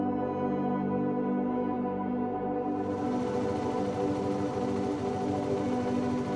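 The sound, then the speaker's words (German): At night, a tuk-tuk with its headlights on approaches, its engine humming with a steady, buzzing drone, then turning rougher and fuller about halfway through, its low rumble sputtering rhythmically. No one speaks. “Der brummende Motor lädt uns zum Einsteigen ein.”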